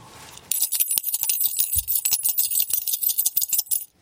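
A handful of coins is shaken close up for the Korean coin-guessing game ssamchigi (jjaljjari), with listeners asked to guess how many coins there are, what they are and the total amount. A dense metallic jingle and clatter starts abruptly and keeps rattling steadily for several seconds, with no one talking.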